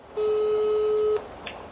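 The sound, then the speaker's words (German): A single steady telephone line tone sounds for about a second at the start of a phone call, loud and clear with a pure pitch, then cuts off abruptly, leaving faint line hiss and a brief soft click. “Jetzt lauschen wir mal in ein ganz besonderes Telefongespräch hinein.”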